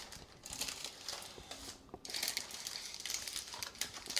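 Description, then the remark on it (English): A spatula scrapes and spreads thick fudge in an 8x8 pan across crinkly parchment paper, a continuous rustling and scratching with a brief pause midway, no voices. “Spread that out with your spatula. Oh, darn. Some got on the parchment paper.”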